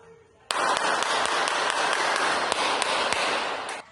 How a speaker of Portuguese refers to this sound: Nesta comunidade em Salvador, moradores tentam se proteger durante um tiroteio.